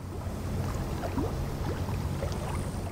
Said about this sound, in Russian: Только волны шумели, да ветер свистел над рекой.